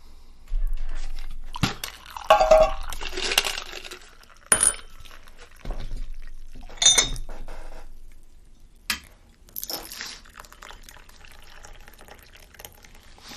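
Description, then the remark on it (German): Tea is poured into a glass, with short bursts of splashing liquid, bright clinks of glass, and handling noises spread across several quiet seconds, with no talking. “Also, okay, dann ich würde einfach anfangen mit, dass ich mir eine Tanne, äh, ein Glas Tee, eine Pecher mhm. eine, so einkippe.”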